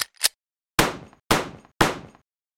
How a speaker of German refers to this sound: diese Kassette genommen, geöffnet und einen Revolver herausgezogen ist zum Bett, auf ihre Bettseite und hat aus nächster Nähe drei Schüsse auf ihn abgefeuert, während er noch schlief.